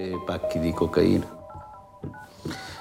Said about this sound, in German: Ja, und dann wählt Gratieri eine Nummer auf seinem Telefon